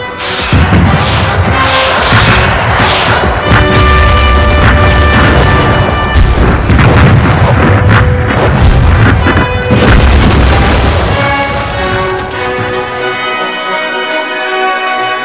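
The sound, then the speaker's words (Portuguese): A loud, continuous Soviet artillery barrage of cannon and rocket fire: heavy booms and blasts pound one after another over a deep rumble, with sustained tonal music layered underneath, easing off near the end. “Os pesados bombardeios da artilharia alemã eram contra-atacados por violentas barragens da artilharia soviética com disparos de canhões e foguetes.”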